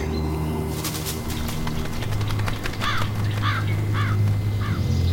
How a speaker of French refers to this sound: Juste à notre aplomb, une corneille est posée sur une branche. Dans quelques secondes, elle va s'envoler.